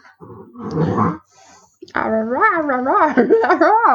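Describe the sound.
A person imitates their dog, first with a short rough growl, then after a brief pause a long, wavering, howl-like whine that rises and falls for a couple of seconds.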